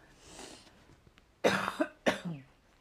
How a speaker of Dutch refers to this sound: En ehm, sorry, ik moet af en toe een beetje hoesten. Ehm, dus ik zal de andere kant op hoesten dan de microfoon. Maar dan weet je dat en ik moet nu hoesten.